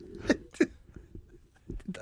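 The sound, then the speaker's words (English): A quick sneeze sounds as two sharp, breathy bursts a fraction of a second apart, followed by faint shuffling and small noises. “Bless you.”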